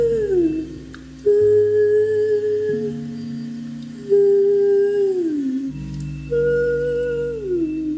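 Singing underwater with an air bubble in the mouth: eerie, howl-like sung notes that hold steady then slide downward, repeated in several phrases over a low, muffled drone.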